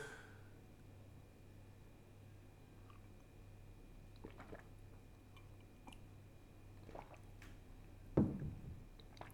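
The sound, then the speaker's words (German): Someone quietly slurps coffee over a steady low hum, with a few soft sips and mouth noises and one louder, wetter slurp near the end. “Die Zeit habe ich genutzt, um an meinem Kaffee zu schlürfen.”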